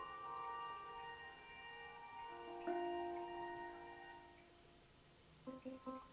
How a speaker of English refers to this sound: Oh, and it's all like warped and stuff. Oh, that's cool. So yeah, it's kind of like a hand pan, but instead of being like tuned with hammers, it's just laser cut. Um, it's my fun instrument toy.